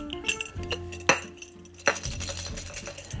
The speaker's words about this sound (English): As you can hear, I'm shaking his toy. I was hoping he would come in and make an appearance on the podcast.